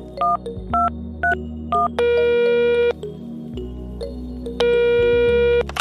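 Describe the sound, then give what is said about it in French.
A sequence of electronic answering machine tones before a voicemail message: four short beeps in quick succession, then a longer sustained tone, a pause, and another long tone. “Avant de nous quitter, je vous propose d'écouter un petit message du répondeur du podcast.”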